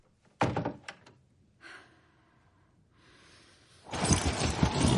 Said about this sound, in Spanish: Ella se marcha. En el pasillo cierra la puerta.